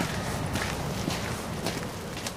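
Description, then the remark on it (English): Steady footsteps walking out of the Flevopark at an even pace, about four crisp steps over a constant outdoor background hiss, with no talking. “we walk out of the Flevopark.”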